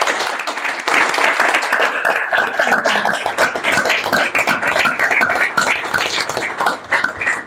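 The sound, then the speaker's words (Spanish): A festival round-table audience breaks into sustained applause for the speakers, the shop and the Siete Héroes initiative, a dense steady wash of many hands clapping at a fairly loud, even level for several seconds without dying away. “O sea que simplemente, aparte de pediros un aplauso para los aquí presentes, los ponentes, eh, para la tienda y la iniciativa por parte de Siete Héroes, por favor.”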